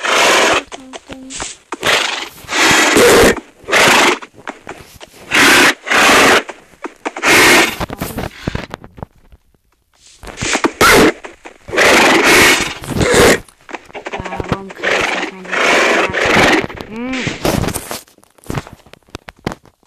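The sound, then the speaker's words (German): Video game horses neigh and whinny over and over in loud bursts, one call crowding the next, with a brief lull midway before another run of whinnies. “Spawnen hier einfach zigtausend Filz, Pferde, Filz, Filz.”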